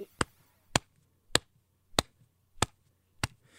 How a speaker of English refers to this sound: You hear this like mm-hmm. bright snap, and then we'll add in like a thump.